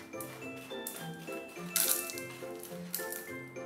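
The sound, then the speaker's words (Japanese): Small hard pieces, mostly the finer ones from a box of mixed sizes, clatter into a pot to be melted, in two brief rattling bursts, over a steady background of sustained tones that shift in pitch. “大小いろいろ入っていますが大きいやつは溶けにくいので砕きながら使った方がいいです今日はちょっと砕くっていうことを想定していないのでまあ細かいやつを中心に鍋に入れます”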